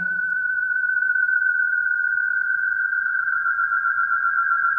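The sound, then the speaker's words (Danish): A single sustained electronic frequency-modulated tone, its pitch jumping up and down, holds steady and fairly loud for the whole stretch, with a fast, tight warble in its pitch and a faint low rumble underneath. “eller, eller vi modulerer endnu mere, så opstår der alle mulige andre ting.”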